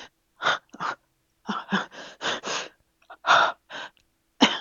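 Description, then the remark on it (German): A voice actor dubbing a film performs a series of heavy, breathy gasps and exhalations in front of the microphone, matching the picture, in irregular bursts, fairly loud, with brief silences between them and no actual words spoken. “die haben also dann vor dem Mikrofon gestanden eine gewisse Zeit und haben nur geatmet”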